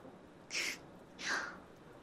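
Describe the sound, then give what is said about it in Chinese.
Two soft, breathy coughs, each a brief hiss-like burst, separated by about half a second of quiet. No one speaks. “你刚才咳嗽了吧？”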